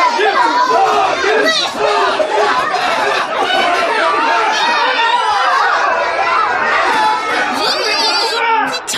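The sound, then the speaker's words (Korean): A large crowd of commoners and Confucian scholars clamoring and shouting all at once outside the Uigeumbu to save Heo Gyun, a loud, dense wall of overlapping voices that stays steady and agitated for the whole stretch. “소리가 아니 들리십니까 전하 그동안 허균이 백성들의 마음을 흔들어 놓지 않았다면 어찌하여 백성들이 목숨을 걸고 허균을 구하려고 하겠사옵니까”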